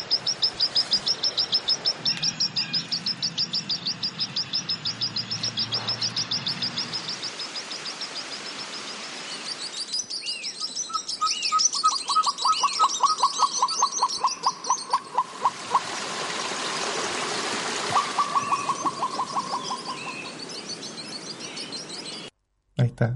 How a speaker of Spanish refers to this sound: Eh, escuchábamos varias especies por ahí. La eh, turca, que el queltewe, varias especies exacto. de aves. Exacto, reconocible.